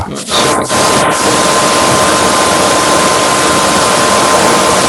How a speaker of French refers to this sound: Quelqu'un passe l'aspirateur Quelqu'un qui passe aspirateur.